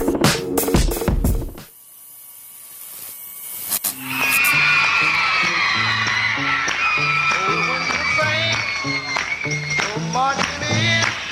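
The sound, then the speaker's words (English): A few sharp claps ring out, a brief lull follows, then a large crowd erupts into sustained, loud clapping and cheering with excited shouts layered over the din. “How can't you clap, right?”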